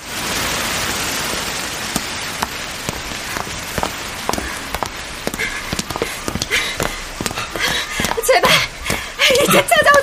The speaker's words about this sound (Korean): 어? 어? 비 온다. 그러게. 웬 소나기?